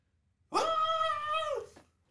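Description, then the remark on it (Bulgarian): A goblin in distress, somewhere nearby, lets out a single shrill, sustained scream lasting just over a second, loud, with a slight pitch sag at the end and no talking around it. “Момента, в който спря да дадеш момент на тишина, се чуват писъци.”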